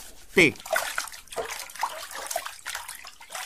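Hands are washed under a running tap, removing up to 90% of bacteria, with steady water noise broken by brief splashes and wet rubbing throughout a few seconds.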